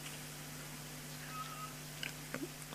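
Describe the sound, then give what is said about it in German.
A cat gives a short meow or two in the background near the end, over a steady low electrical hum, with no one talking. “Nee, das ist die Katze.”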